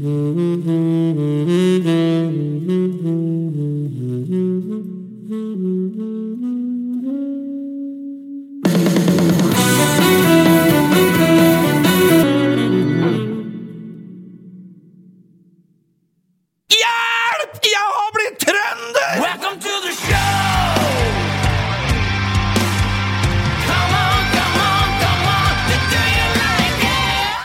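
A new rock song from the artist's latest album plays loud, with a melodic opening that gives way to a dense, driving rock section with shouted vocals, a brief drop to near silence, then a full-band return.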